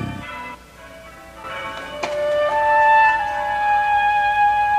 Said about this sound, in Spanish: Se casan mañana. Escucha las campanas. Hay expectación.